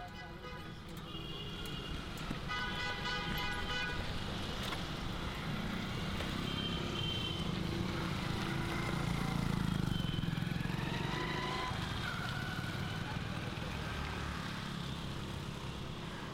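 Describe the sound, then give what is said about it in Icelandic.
Dense street traffic in the city of Varanasi (formerly Benares), India, rumbles steadily with engine noise and motorbikes. Several horns honk in short overlapping bursts early on, with more scattered honks later over the constant din. The sound comes from a short video work in a photography exhibition. “hljóðmyndin kemur úr einu verkan á síningunni frá Indlandi.”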